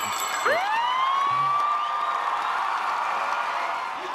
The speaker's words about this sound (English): Who's cheering for this, by the way? Who's yeah, that was added in. That was that was a standard fucking uh like an applause sound. effect.